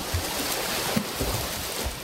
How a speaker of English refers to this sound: 142 hands swimming a triathlon.